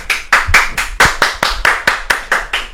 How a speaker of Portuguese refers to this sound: Palmas, palmas. palmas.